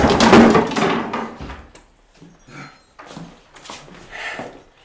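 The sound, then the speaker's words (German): A heavy door, bolted and barricaded from the inside, is shoved and forced open with a loud crash, followed by several quieter wooden knocks and scrapes as it gives way. “Sie hat ihn hier von innen zugeriegelt. Ja. Nein, die, die, die Tür ist verrammelt.”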